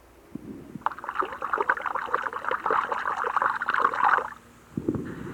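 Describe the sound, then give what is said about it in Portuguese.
Water sloshing and gurgling as a hand stirs it in the Tietê River at its source, at the foot of the Serra do Mar between Salesópolis and Paraibuna: a steady splashy churning for several seconds that stops briefly, then resumes, fairly loud. “Esse barulho que vocês acabaram de ouvir é da água do Rio Tietê. Eu pus na minha mão dentro do rio Tietê, exatamente, na nascente do rio Tietê.”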